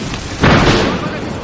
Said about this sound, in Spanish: rayo, un rayo! ¡Vamos a morir!